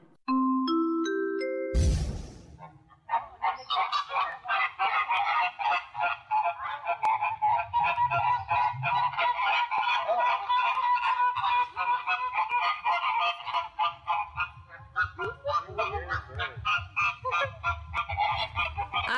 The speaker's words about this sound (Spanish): Estamos escuchando los estridentes chillidos de un grupo de flamencos, también conocidos como flamingos